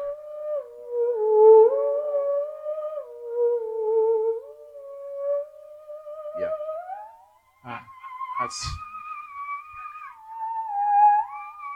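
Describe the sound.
A theremin plays a film's theme as a slow, swooping melody, its wavering tone gliding smoothly between notes, with a few sharp clicks and a brief spoken remark near the end.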